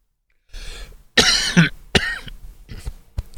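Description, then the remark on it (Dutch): A series of harsh, rasping coughs, several bursts in quick succession with a strained, throaty edge, as someone coughs after choking on something. “verslikken ook een oude mensenkwaal.”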